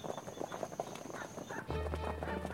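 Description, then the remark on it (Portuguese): Horse hooves clip-clop in a steady rhythm as a horse-drawn cart moves along, joined midway by a low rumbling of wheels, with no talking. “Entre nesta carroça.”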